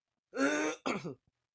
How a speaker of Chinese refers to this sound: 干，我怎么一直想要咳嗽？